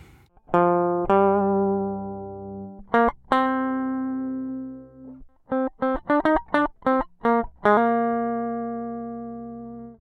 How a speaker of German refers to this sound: Ich habe meine DI-Gitarre genommen, die spiele ich euch gleich vor und gleich danach hört er dann, wie das in Saxophon umtransformiert klingt.